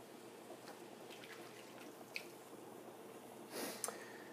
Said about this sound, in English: I'm going to steal some water off the noodles.